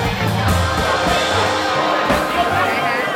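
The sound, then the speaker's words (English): A packed nightclub crowd in lower Manhattan, New York City, on Colombian Independence Day, fills the air with dense, overlapping chatter, steady and loud throughout, over a thumping low bass pulse from the music. “It's July 20th and I'm in a packed club in lower Manhattan.”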